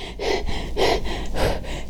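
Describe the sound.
A person demonstrates stressed, anxious breathing: about three short, airy, shallow chest breaths in under two seconds, quick and evenly paced, with no talking.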